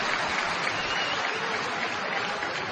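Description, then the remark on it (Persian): Steady applause from a crowd fills the whole stretch, a dense wash of many hands clapping at an even, sustained level without any voices standing out. “من فکر میکنم اینایی که اونجا نشستن و برای این دست میزنن واقعا اینا چه بدبختایین.”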